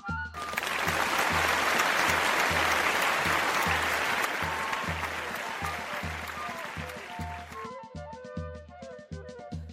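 Loud, sustained crowd applause builds quickly and holds for several seconds over a steady thumping music beat, then fades out, leaving the rhythmic music playing alone.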